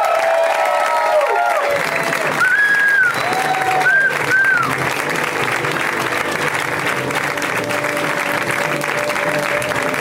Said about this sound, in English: Hey, you guys, one more of applause for everybody you saw tonight. That is our show.